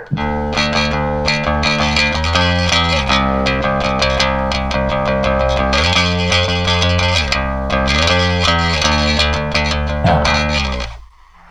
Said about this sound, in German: hört einfach, genießt diesen Bass-Sound einfach mal kurz und ich höre dann nach ein paar Sekunden auf. Also keine Angst.